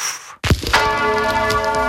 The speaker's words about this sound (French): Comme premier jingle, les cloches de l'église Notre-Dame du Vœu à Cherbourg qui sonnent pour la première fois depuis 4 ans.